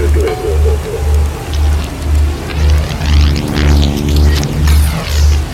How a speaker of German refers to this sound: Das, was ihr da flattern hört, das ist die Libelle.